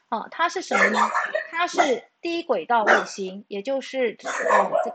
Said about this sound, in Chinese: 哎，吵死了！干嘛？橘子，对不起，管一下狗。